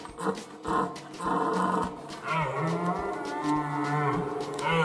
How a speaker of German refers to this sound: Ja, so können Rentiere übrigens klingen.